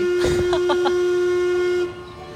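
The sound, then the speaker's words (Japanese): The whistle of the Mark Twain steamboat at a theme park, recorded with Big Thunder Mountain ride noise around, blows one loud, steady, low-pitched tone for almost two seconds, then cuts off. A few quick hissing puffs of mechanical noise sound early on beneath it. Nobody speaks. “今あのマーク・トゥイン号の近くで収録してるんですけれどマーク・トゥイン号の音やらビッグサンダー・マウンテンの音やらがすごい入ってうるさいかも”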